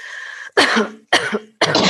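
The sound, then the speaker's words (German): Three loud coughs into a fist follow one another about half a second apart, each a harsh burst after a short breathy lead-in, with no talking, made by a person turned to the side looking over the shoulder as a breathing exercise. “Und dann drehen wir uns nochmal zur Seite und husten oder schauen fast über die Schulter und husten jetzt noch dreimal in die Faust, was sich dann da verändert.”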